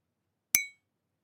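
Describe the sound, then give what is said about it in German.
A single bright clink of a stirring stick striking a large ceramic mug, used as a sound effect, sharp, with a short ringing tail that fades within a quarter second before silence. “ich habe für Soundeffekte aktuell nur eine große äh, Keramiktasse zur Verfügung mit so einem Umrührstab drin”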